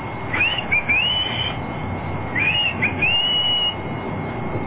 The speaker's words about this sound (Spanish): y voy a echarle un chiflido.